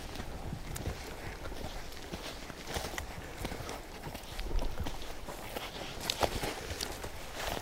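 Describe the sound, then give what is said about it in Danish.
Steady, crunching footsteps of a person tramping through loose dune sand, continuous for several seconds, with a soft breezy hiss in the background and no clear talking. “De er jo som regel væk, ikke, når man jo. kommer trampende her.”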